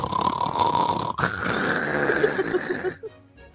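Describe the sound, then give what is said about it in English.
A voice loudly imitates snoring while pretending to be asleep: two rough, raspy breaths in a row, the second longer and drawn out, ending abruptly in quiet. “she quickly just dropped dead to the floor to pretend she was asleep. uh, snoring like super loud, like.”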